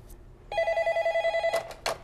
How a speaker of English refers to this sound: But oh, the phone is already ringing. See, we're not even open, and that's just going to keep ringing and aggravating me.